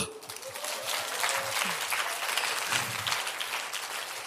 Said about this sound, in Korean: 박수!